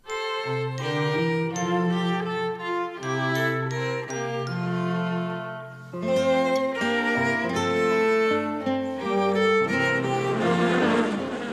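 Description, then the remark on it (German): A loud, buzzy, bee-like drone plays a simple stepping melody, its pitch jumping between sustained notes with a bright, tinkling accompaniment. It sounds like an instrument imitating a buzzing bee rather than a real insect, playing the German children's song "Summ, summ, summ, Bienchen summ herum" on SWR2 Kinderlieder. “Summ, summ, summ, Bienchen summ herum.”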